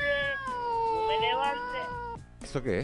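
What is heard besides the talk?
cat meowing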